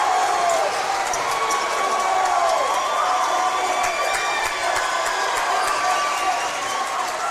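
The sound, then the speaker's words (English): A basketball crowd cheers the Union City Chargers' district championship win in a loud, steady roar for several seconds, with scattered shouts, high whistle-like squeals and sharp claps or thuds popping through the din. “Let's listen in on the crowd.”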